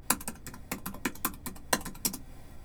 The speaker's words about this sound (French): Dans son coin, Choc tape de plus en plus bruyamment sur les touches.